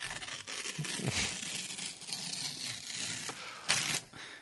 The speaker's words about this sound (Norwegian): Nå river jeg et papir fordi at jeg skal pakke tyggisen min inn i det kan jeg å ta den ut før det blir for klissete.